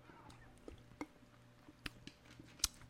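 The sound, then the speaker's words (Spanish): Quiet drinking of sparkling mineral water: a few wet gulps and swallowing clicks spaced irregularly, with faint fizzy crackle between them and no talking. “Pero voy a hacer un trago dramático para que digáis, hostia, voy a ponerlo a por dos, que si no, mm, el trago dramático no termina nunca.”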